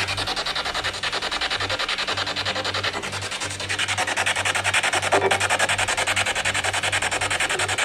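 Harsh, continuous static from a spirit box radio used while ghost hunting, with a fast, choppy flutter as the tuner sweeps through stations, steady and fairly loud, over a low droning hum, with no voices.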